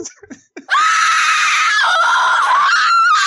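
A shrieking-woman sound effect: a woman lets out a loud, sustained, high-pitched shriek lasting nearly three seconds, wavering slightly in pitch, preceded by a few brief breathy sounds.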